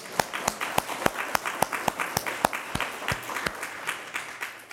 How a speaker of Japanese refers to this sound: アーメンと思われる方は大きな拍手を一緒に捧げましょう。アレルヤ。